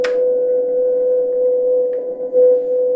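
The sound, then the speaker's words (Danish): A single steady electronic tone from a turntable holds unbroken for the whole stretch, fairly loud and even, a note being looped so further tones can be layered on top, with a brief scratchy burst at the very start. “jeg kan loop den her tone, og så kan jeg ligesom putte en ny tone ovenpå”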